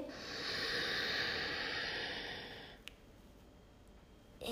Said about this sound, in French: Je fais beaucoup de bruit avec ma respiration afin de vous décomplexer complètement sur vos impulsions, sur votre mouvement et rythme respiratoire.